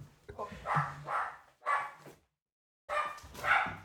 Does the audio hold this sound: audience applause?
no